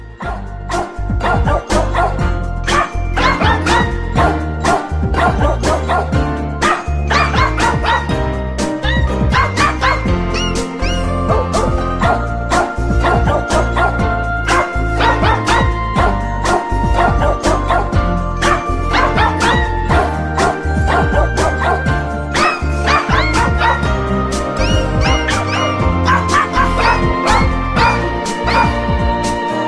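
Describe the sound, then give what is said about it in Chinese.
Dogs bark and yip excitedly in welcome as a key sounds and the door is opened, in a dense, nonstop run with higher whimpering whines mixed in; loud and busy throughout, with no talking. “只要钥匙声在门外轻轻地响起，便发出愉悦奔放的欢迎声，热情到让人非常有存在感。”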